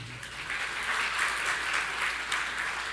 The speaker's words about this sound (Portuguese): Uma salva de palmas.